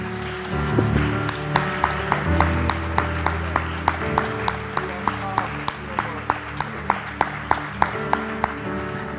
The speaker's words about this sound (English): If you believe the Lord heard you, I want you to clap your hands one more time unto the Lord.